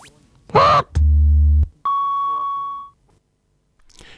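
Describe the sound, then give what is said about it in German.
A short sequence of horn honks and beeps: a nasal toot, then a low buzzing honk, then a longer steady electronic beep, each loud, separated by brief pauses. “Sie haben nur eine eingeschränkte Kommunikation. Sie können nämlich nur hupen.”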